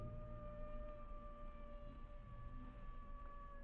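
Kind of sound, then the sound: animal, coyotes howling at night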